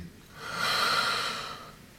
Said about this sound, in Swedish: Så det fanns med på schemat och vi testade också någonting som kallas för breathwork där man ska lära sig andas på ett särskilt sätt.